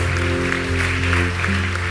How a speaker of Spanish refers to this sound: Dale un aplauso a tu Señor en esta hora.